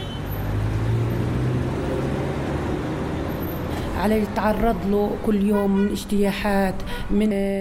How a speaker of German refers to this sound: Nach einer kurzen Diskussion mit meiner palästinensischen Begleiterin und einigen kritischen Blicken drückt er aufs Gas. Der Wagen verschwindet um eine Häuserecke.